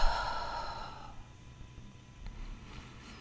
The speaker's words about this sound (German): Nimm mit mir gemeinsam drei bewusste Atemzüge durch die Nase. Atmen wir ein und durch den Mund aus.